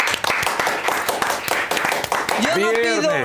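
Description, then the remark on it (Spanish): A short burst of applause from a small group, quick irregular claps filling most of the moment, before a voice cuts in with a rising, drawn-out exclamation over the last claps. “Yo no, pido, un aplauso para el amor, pero para el viernes sí.”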